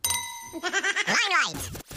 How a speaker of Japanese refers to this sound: まあ、まだあの19歳なんでね、なんでお酒が飲めないんで今日はなんかソフトドリンクで乾杯していきたいと思います、はい、それじゃあ乾杯